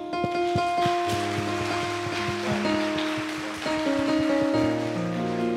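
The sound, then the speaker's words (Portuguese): An audience applauds a man who answered a question correctly, a steady wash of applause, dense and even, filling the whole clip while a sustained keyboard melody plays steadily over it, its notes changing every second or so. “Palmas para ele.”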